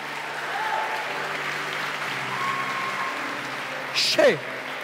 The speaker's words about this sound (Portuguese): Você vai aplaudir o Senhor, aplaude direito.